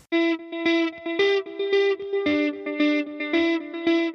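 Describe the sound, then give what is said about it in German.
A loud intro music jingle with punchy, distorted chords repeating in a steady pulsing rhythm, roughly two hits per second, playing alone with no voices. “aber wir wollten erst Musik hören.”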